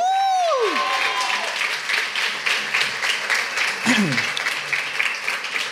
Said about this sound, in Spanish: Un aplauso para Sarta, vamos todos arriba.